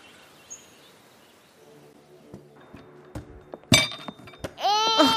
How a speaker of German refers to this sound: Jetzt hast du dir die Schublade auf den Kopf geknallt.